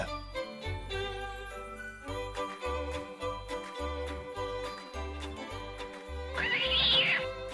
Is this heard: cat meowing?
yes